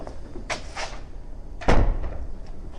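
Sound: door opening and closing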